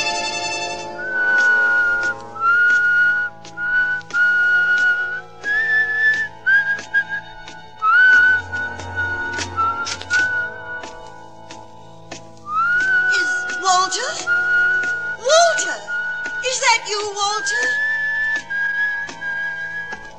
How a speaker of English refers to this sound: Remember my whistle, huh?